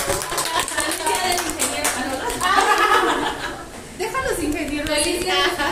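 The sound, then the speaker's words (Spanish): A crowd applauds with steady, dense clapping for several seconds, mixed with scattered laughter and chattering voices, loud throughout. “Un aplauso.”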